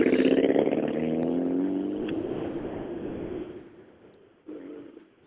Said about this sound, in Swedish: som sagt en Peugeot som annalkas också. Ja, han ser inte ut att vara eh, allt för långt borta. De hörs ju de här små Peugeoterna. Det är ett eh, jäkla gott eh, ryt i dem.